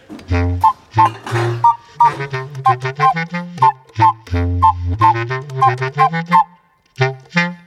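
Plates clink and clatter together in a quick, irregular series of sharp ringing knocks, fairly loud, with only brief pauses between the hits as plates are taken out and paprika chicken is dished up.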